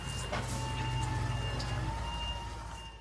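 A large hybrid truck being walked past, labelled as a hybrid, giving off a steady low engine hum with high, thin electric whines layered on top, holding constant throughout with no voices.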